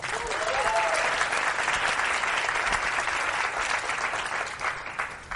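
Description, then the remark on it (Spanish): Sustained audience applause for the kids as they leave the stage, a dense steady wash of many hands clapping at an even level for about five seconds, with a few faint cheers mixed in before it begins to thin out. “Un aplauso para los chicos, pueden bajar.”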